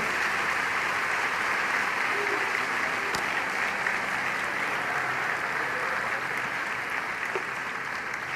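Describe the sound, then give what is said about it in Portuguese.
Steady, sustained applause from an audience giving an applause to the Lord during a Bible sermon fills the whole stretch, a dense wash of clapping that stays loud and even with no pauses or talk rising above it. “Alguém pode dar glória a Deus, um aplauso ao Senhor.”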